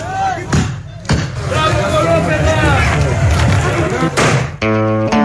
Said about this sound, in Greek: Τέτοιο χειροκρότημα δεν πέφτει ούτε στις συναυλίες που δέχονται οι αστυνομικοί από όπου περνάνε και στα νησιά και στο κέντρο της Αθήνας.